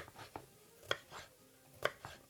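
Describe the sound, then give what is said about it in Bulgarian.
A knife slices a red pepper into thin strips on a board with several crisp, uneven chops, two sharper and louder than the rest, with no talking. “Нарязвам на тънки ленти и когато продуктите в тигана са омекнали, добавям и този зеленчук.”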